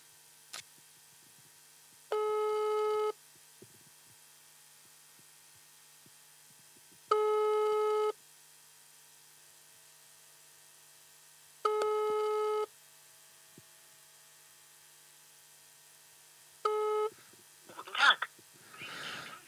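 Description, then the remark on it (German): A telephone busy signal on an outgoing call repeats four times in steady tones about every five seconds, clear, before a brief burst of voice at the end. “jetzt rufen wir einen Flo an”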